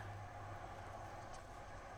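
A steady, low rumble of a car driving, heard faintly in the background. The noise stays even throughout, with no voices and no distinct passing or changes in pitch.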